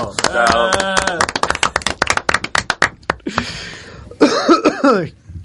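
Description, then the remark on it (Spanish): A harsh coughing fit: strained, voiced hacking gives way to a rapid string of sharp coughs, then a raspy wheezing breath and a few more throaty coughs. “Ay, qué, tos más mala que tengo.”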